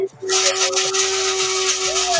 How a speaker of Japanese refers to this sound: 何の音だあ、これ今豆引いてます。